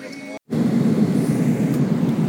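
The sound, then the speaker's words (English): A steady, loud low roar of cabin noise aboard a large Airbus airliner fills the whole recording, broken only by a split-second gap near the start before the droning rumble resumes unchanged. “all right, we're on the plane, and the, screen in front of us, the the, t- the, airplane.”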